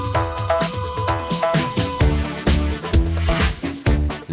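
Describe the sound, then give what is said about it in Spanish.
A special remix of a 1980s dance song plays loudly and steadily, with a punchy four-on-the-floor beat, thick bass, and bright, choppy synth or brass stabs repeating over the groove. No one speaks. “Lo que estás escuchando es esa remezcla especial”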